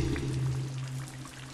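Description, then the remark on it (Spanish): Steady rain patters in a dense, continuous hiss over a low droning hum, with no voices and an even, moderate level throughout the short stretch. “Así, cuando llueve, socavando sobre Luzumacinta, Aún en la corteza de los viejos árboles, se encoge el terror.”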